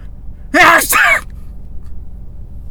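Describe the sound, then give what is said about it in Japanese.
A person fakes a sneeze: a loud, two-part voiced burst lasting under a second that comes out more like a big forceful exhale than a real sneeze, then quiet. “ただ大きい息を吐いた人になっちゃってるよね。”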